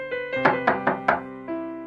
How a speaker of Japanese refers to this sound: ノックの音がした。